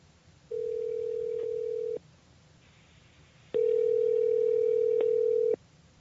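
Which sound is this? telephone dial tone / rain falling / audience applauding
telephone dial tone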